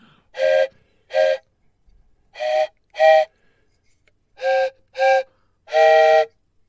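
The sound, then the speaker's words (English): A wisdom whistle sounds in short, bright blasts grouped in pairs, alternating between two notes with pauses between groups, ending on a longer held tone; loud, and without any talking. “Only two notes, but that's good.”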